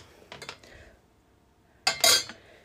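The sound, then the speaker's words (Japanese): A few light ceramic clinks and taps of a mug being warmed while preparing drip coffee, a soft cluster early on, then a louder, brighter clatter near the end, like the mug knocking against a counter or another dish, with no talking. “マグカップを温めてます”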